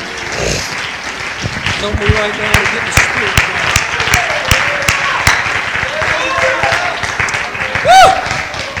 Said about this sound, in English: Somebody clap your hands and give him praise here tonight.